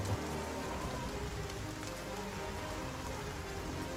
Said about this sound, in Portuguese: A, a, tá chu a chuva tá bem forte? Tá.